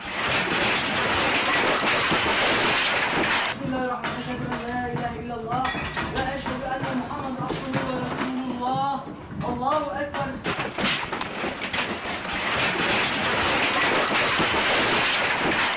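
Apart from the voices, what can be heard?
earthquake rumbling and shaking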